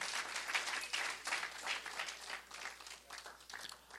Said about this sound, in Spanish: Y claro que lo vamos a honrar no solamente eh, esta noche, sino siempre. denle un aplauso una vez más a los pastores, póngase de pie.